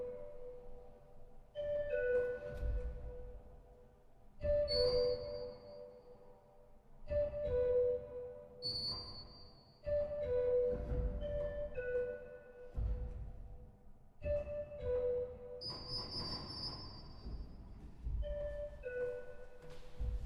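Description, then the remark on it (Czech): Pipe organ improvisation on animal sounds in a turtle-shaped church, with a recurring two-note falling figure that mimics a cuckoo call, repeated every few seconds over sustained chords and bright high flourishes, played alone without any voices. “tak při poslechu téhle improvizace, tak jak jsem uslyšela tu kukačku, tak mi je jasné, že budeš improvizovat na zvuky ze zvířecí říše.”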